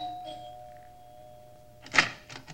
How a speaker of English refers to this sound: We took the elevator up and rang the bell.